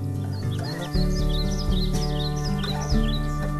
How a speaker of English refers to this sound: it was important to have the wind, the leaves, the birds as kind of the closeout thing